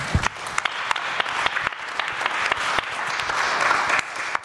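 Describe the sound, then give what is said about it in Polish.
Sustained audience applause welcoming a guest, a dense crackle of many hands clapping with sharp individual claps popping out, steady and fairly loud throughout with no talking over it. “słuchajcie, wielkie brawa dla niej.”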